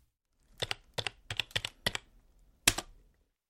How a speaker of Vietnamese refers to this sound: Tôi gõ chữ cô độc và ấn Enter.